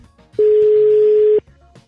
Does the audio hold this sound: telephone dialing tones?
yes